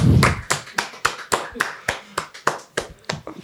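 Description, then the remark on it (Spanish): At the end of an interview, a few people clap for the technicians in a quick, slightly uneven rhythm, a dozen or so sharp, bright claps over a few seconds with no one speaking. “Un aplauso para los técnicos, tío.”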